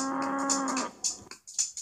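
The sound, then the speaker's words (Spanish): A cow moo sound effect, a steady droning low call lasting under a second, followed by a few short, sharp bursts of noise. “¿Por qué apareció una vaca?”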